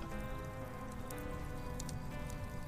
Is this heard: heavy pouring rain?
yes